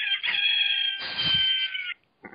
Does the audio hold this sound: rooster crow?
yes